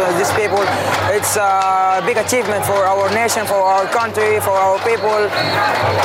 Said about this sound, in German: Man hört im Hintergrund auch immer noch dieses Klopfen und das ist, glaube ich, entstanden durch Steine, die an eine Eisenbahnbrücke aus Metall geschlagen wurden